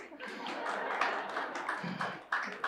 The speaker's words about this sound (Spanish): el abuelo la aplaude